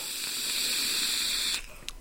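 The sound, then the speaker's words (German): A steady, breathy hiss of an e-cigarette filled with banana-pudding flavored liquid being drawn on, lasting about a second and a half before cutting off, followed by a brief faint puff. No one speaks. “Hast du zufälligerweise Apfeltabak in deinem Dampfer drin?”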